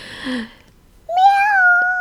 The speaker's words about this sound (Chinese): 喵喵